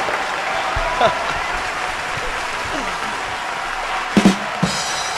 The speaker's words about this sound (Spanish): ¿Cómo anda la gente hermosa de Mundo Circo ahí del otro lado? Gracias, gracias por los aplausos. Mirá la ovación de pie.